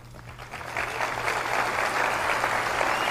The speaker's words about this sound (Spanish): Aplausos. Sí, sí, esa parte la entendimos. Clap, clap, clap.